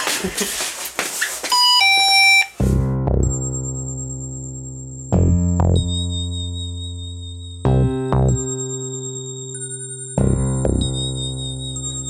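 A doorbell rings with a loud, sustained electronic chime, repeating four times at steady intervals, each tone lingering and decaying, preceded by a brief busy flurry of rising beeps; no one speaks.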